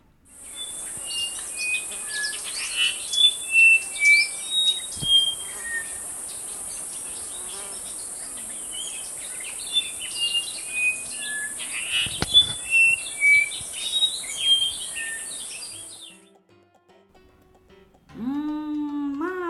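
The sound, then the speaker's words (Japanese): A male and female duet of a bird called megane-hitaki in Japanese, the male singing the first part and the female answering: bright, whistled call phrases said to sound like 'Please come for breakfast', in two lively bursts over a steady high-pitched insect drone that cuts off near the end. “皆さんこの鳴き声お気づきになりましたかね実はこれオスとメスのデュエットなんですね2話でこれ泣いてたんですオスが前半歌ってメスが後半返事してるんですね”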